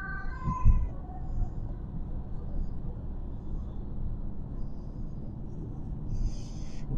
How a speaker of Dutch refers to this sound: En ehm, ik werd eventjes afgeleid, want ik werd eh, ingehaald door een ehm, ambulance hier op de snelweg. Dus ik moest eventjes eh, goed opletten.